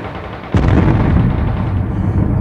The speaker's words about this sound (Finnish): Majuri Vangulu, ampukaa tuon panssariauton konekiväritorin pois.